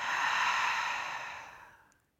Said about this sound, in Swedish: Och vi tar tillsammans ett djupt andetag in, fyller upp hela bröstkorgen med kärlek. Och andas ut, tömmer.